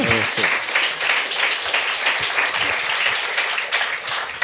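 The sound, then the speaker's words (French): Steady applause from an audience for a comedian fills the whole stretch, dense overlapping claps at an even level, with a brief voice fragment at the very start. “On va l'applaudir.”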